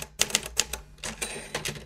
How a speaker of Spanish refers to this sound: un día me hizo el tremendo regalo. Me dio mi primera máquina de escribir.